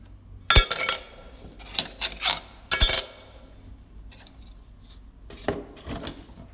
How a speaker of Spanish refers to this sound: Bueno, ese sonido es la, tarjeta, em, en este caso una Mastercard de Apple, em, eh, cuando, cae golpea la mesa, o sea, es como si fuese una chapa directamente, es pesada.